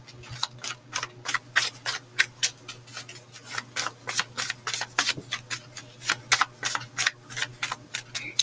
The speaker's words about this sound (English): And then I just find it so satisfying to hear the, the noise of the, the paper or the decks of cards.